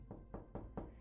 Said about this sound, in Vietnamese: Tiếng gõ cửa vang lên làm cho bà Anh giật mình, đã nửa đêm mấy vậy mà ai còn đến giờ này